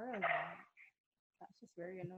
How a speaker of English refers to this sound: Guys, I'm sorry for my dogs. They're out of control today.